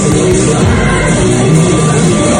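Loud, dense crowd noise at a party where Finnish Prime Minister Sanna Marin is partying: a continuous wash of overlapping voices with occasional yells, heavy low rumble underneath, steady throughout with no clear single speaker standing out.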